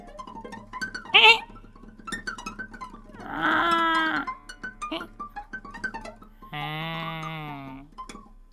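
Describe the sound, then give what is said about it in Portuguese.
Two drawn-out, wavering sheep bleats, fairly loud, separated by a few seconds, with a short spoken exclamation and light background noise before them. “Escutavam os seus balidos e tentavam não ouvir o tilintar contínuo dos sininhos que traziam ao pescoço.”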